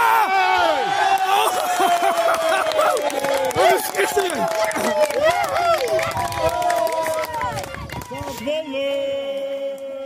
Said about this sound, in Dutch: Je hoort ook dat de ouders langs de kant precies weten welke, hoe de opening moet gebeuren. Dus ze roepen ook al, je moet nu naar hem.